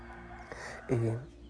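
A rooster crows once early in the morning at first light, a short, loud call lasting under half a second, over a steady low background hum.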